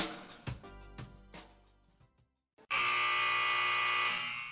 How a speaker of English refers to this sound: The sound of the final buzzer means it's hangover time